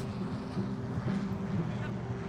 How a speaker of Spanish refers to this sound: Un médico que vivía en el área reconoció el sonido de los motores de un avión que se aproximaba.